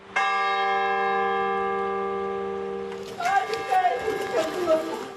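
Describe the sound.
A church bell in Greece strikes once, loud, tolling mournfully for the 57 victims on the first anniversary of the country's deadliest railway accident; its deep ringing tone hangs and slowly fades for a few seconds before a voice begins talking over the dying resonance.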